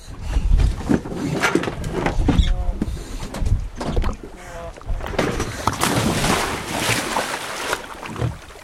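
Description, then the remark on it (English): Four divers splash one after another from a boat into wind-wrinkled, highly saline water off Saadiyat Island, Abu Dhabi, each plunge a loud, rushing burst over steady wind and lapping water. “One by one, four divers plunge into the wind wrinkled water.”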